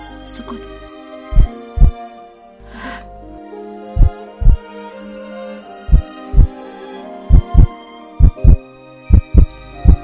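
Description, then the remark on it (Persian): A heartbeat in steady lub-dub pairs, deep thumping beats repeating regularly over a faint continuous hum, with no talking. “یک بچه دارم میذارم بچه یا آقا یا عمل میکنه یا نمیکنه دیگه یا عمل میکنه یا نمیکنه قلبشو دارم میذارم”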